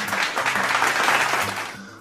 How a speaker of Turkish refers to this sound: Alkış.